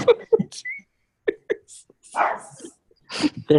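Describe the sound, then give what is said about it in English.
A dog gives a few short, sharp barks, scattered across a few seconds, with bits of human voice and breathy sounds mixed in between. “Just- There's a dog in the podcast.”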